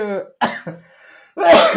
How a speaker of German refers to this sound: oh, jetzt muss ich husten.